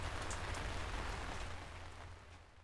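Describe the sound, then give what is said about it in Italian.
Steady rain falling, a dense hiss of drops spattering on surfaces with a low rumble underneath, even throughout, easing slightly toward the end. No voices. “Esta semana llueve mucho.”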